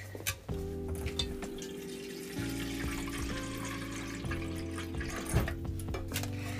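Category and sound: household object, pouring water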